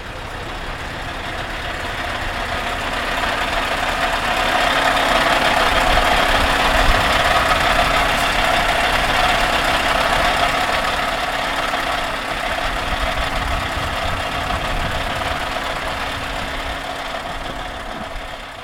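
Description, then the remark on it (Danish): A truck engine runs steadily, idling with a low, continuous rumble and a faint knocking texture, swelling slightly in loudness midway before settling. No one speaks. “Ja, og hvilken lastbil var det, vi kunne høre øh, lyden af her?”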